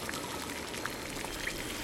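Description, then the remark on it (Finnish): Steady rushing, pouring water fills the space as it leaks into a submarine through cracked glass, a continuous hiss of liquid flowing in with a few small bright drips or splashes on top, without any voices. “Ei se ole vesihana, se on vuoto.”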